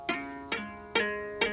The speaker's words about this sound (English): is actually playing a melody in the lower part of the harp using a tuning fork. Okay. Um, it'll sound like this.